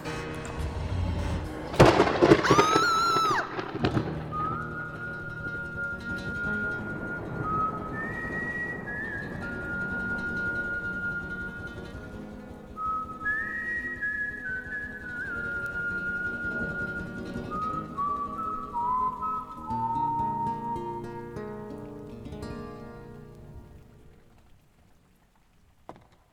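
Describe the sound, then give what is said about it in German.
Steady rain hisses throughout, with a sharp, loud thunder crack near the start, while an eerie whistled melody drifts over the downpour before everything fades out. “Fehlt eigentlich nur noch Gewitter.”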